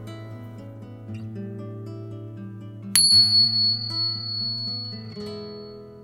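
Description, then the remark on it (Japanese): A bright bell strikes once near the middle and rings out with a long, shimmering decay, layered over a soft, sustained tonal background of gentle chords. No voices are present. “リラックスできる鐘の音を聞いていただいてからスタートです。”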